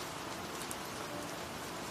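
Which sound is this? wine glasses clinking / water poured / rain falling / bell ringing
rain falling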